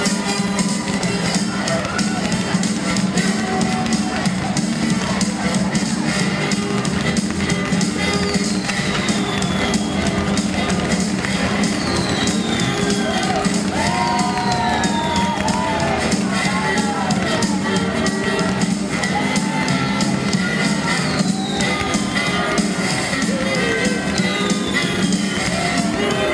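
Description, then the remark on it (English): A stadium crowd at Nat Bailey Stadium roars and cheers in a dense, steady wash of noise heard from under the grandstand, with fireworks going off and a few high whistling swoops cutting through the din midway. “When you're sitting under the grandstand at Nat Bailey Stadium, it's almost hard to hear the fireworks going off in the background.”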